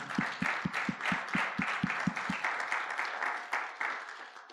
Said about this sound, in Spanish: Denle un fuerte aplauso al Señor, hermano y hermana.